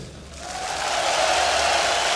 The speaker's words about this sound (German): Und der hat er bekommen, ja. den Applaus.